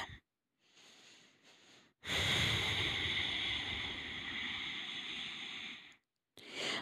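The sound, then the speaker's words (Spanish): Deep breathing from the diaphragm during a breathing exercise: a softer intake of breath, then a long, loud, rushing exhale lasting several seconds, with a brief pause before another breath starts. “Empieza a respirar desde el diafragma.”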